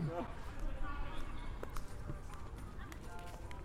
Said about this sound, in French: on entend son pas il porte des sandales.